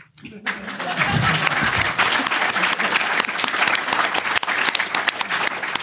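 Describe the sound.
An audience at the Capital One Radio Hour bursts into loud, sustained applause for a speaker at the close of the session, a dense steady wash of many hands clapping that holds evenly for several seconds, with a few faint voices mixed into the crowd noise.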